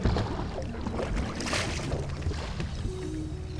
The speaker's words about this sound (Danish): Vi er ombord på et skib. Men ikke bare et hvilket som helst skib. Det er et vikingeskib. De store bølger slår ind mod skibets sider, og en stærk blæst hjælper det kæmpemæssige træskib ud på det store, åbne hav.